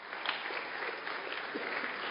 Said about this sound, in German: Eure Band wirklich ganz, ganz große Klasse. Da kann man auch nochmal einen Applaus dafür geben. Vielen Dank.